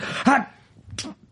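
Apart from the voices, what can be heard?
sneeze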